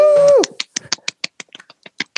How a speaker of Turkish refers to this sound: Alkışlar.